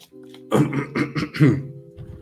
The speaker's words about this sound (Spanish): perdón, ya quedamos que yo también estoy enfermo, creo que no es COVID, pero hasta mañana voy a hacer la prueba. Entonces van a estar escuchado que toso y tomo agua y demás.